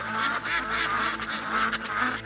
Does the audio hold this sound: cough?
no